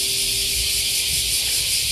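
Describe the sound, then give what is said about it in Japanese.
A dense, continuous wall of cicada song as the cicadas call to court mates, a loud, steady high-pitched buzzing hiss that holds level for the whole stretch with no pauses, with a faint low hum underneath. “今のこのセミたちも、えー、この鳴き声で求愛して、そうね、子供を作って”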